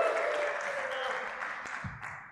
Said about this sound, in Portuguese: Batam palmas aí ao Gilcim.